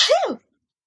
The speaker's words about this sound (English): you cut out that sneeze? I don't want people to know I sneeze.